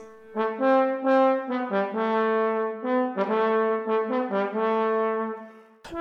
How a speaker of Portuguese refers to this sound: O trecho que escutamos faz parte do terceiro movimento das Baquianas número 2 e nos mostra uma das muitas sonoridades possíveis do trombone